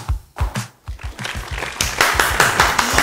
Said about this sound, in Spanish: Un fuerte aplauso para nuestro invitado. Aplausos en esta noche a nuestro gran invitado,